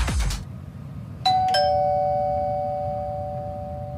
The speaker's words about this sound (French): Le son de cette sonnette vous semble probablement bien banal.